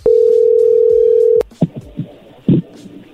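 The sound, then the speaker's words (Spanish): A steady, loud single-pitch telephone line tone holds for over a second as a phone call connects, then cuts off abruptly, followed by a few soft clicks and faint rustling noises on the line. “A ver, ya entró la llamada.”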